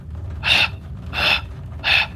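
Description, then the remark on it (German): A voice imitates a man sitting on the floor panting after vomiting: three loud, breathy gasps at a steady, labored rhythm, each a harsh rush of air followed by a short pause, with no words spoken. “völlig keuchend sitzt er da am Boden.”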